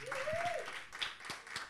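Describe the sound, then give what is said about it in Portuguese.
A church audience breaks into warm applause to welcome back a returning church member: a dense, steady patter of many hands clapping, with a brief voice rising over the opening moments. “que a igreja receba com uma calorosa Salva de palmas.”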